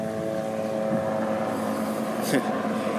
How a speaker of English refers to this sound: mind the helicopter here. Hopefully, it doesn't come through too much.